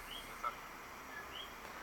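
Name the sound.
small bird chirping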